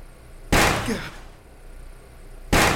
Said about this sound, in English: Something heavy smashed on the garage door. My eyes look up from the remote, with each bang echoing in the room. Large dents form on the door.